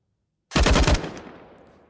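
A short, loud burst of rapid automatic fire from an AUG assault rifle in a video game, about half a second of quick repeated shots, followed by a long fading echoing tail. No voices.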